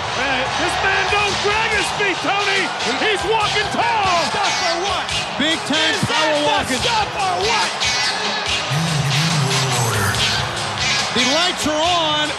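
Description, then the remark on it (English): A loud wrestling arena crowd roars and shouts steadily for the whole stretch as Luger comes out with Hogan in the ring, many voices overlapping, with sharp thuds and slams from the ring cutting through the din. “Listen to this crowd.”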